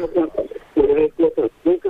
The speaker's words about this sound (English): Uh, hello, you're on Triple R. Hello. Oh, mate. We're talking to someone's butt dial.